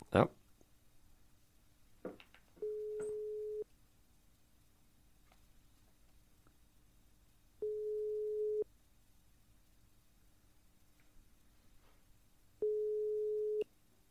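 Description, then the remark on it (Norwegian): A phone line rings back with three steady, evenly spaced tones about a second long each, separated by long silences, preceded by a couple of faint clicks, as a call is placed to a randomly chosen phone number. “Så skal vi, skal vi bare ringe og høre om det svarer.”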